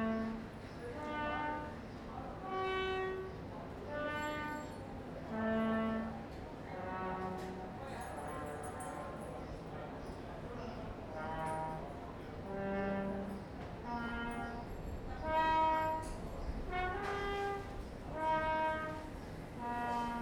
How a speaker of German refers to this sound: Das war gerade eben die Musikschule und wir haben uns einfach übers Kellerfenster gebeugt und was haben wir da gehört? Einen Trompeter, würde ich sagen.